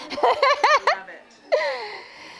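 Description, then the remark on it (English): A baby lets out a quick run of bright, rhythmic giggles, then an adult answers with a soft, drawn-out cooing voice that trails off, fawning over the baby. “sorry, somebody just walked in with a baby.”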